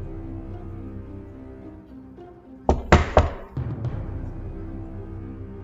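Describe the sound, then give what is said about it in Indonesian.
Three quick, solid knocks on a wooden door, fairly loud, sounding over a soft, steady musical background with no one speaking. “Kemudian ia pun mengetuk pintu.”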